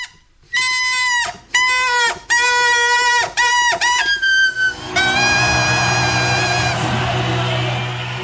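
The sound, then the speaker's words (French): A balloon's neck squeals in a series of short, shrill, wavering bursts with brief pauses, then a longer continuous squeal mixed with hissing air as it lets go; air escaping through the mouth makes its edges vibrate, the pitch set by the membrane's tension. Loud, no talking. “Sous l'action conjuguée de la pression à l'intérieur du ballon et de la dépression créée par l'air qui s'échappe, les bords de l'embouchure se mettent à vibrer, produisant un son dont la hauteur dépend de la tension de la membrane.”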